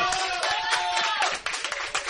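A bar audience at the Papaupa bar applauds steadily at the close of a talk gathering, many hands clapping in a dense, continuous patter at full volume for about two seconds, with some cheering voices mixed into the clapping.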